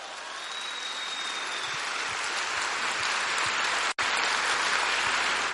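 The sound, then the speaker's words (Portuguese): A crowd applauding steadily, a dense wash of many hands clapping at an even loudness throughout, with a brief cut near the end before it resumes; no one speaks. “É, eu vejo gente que aplaude assim, bem.”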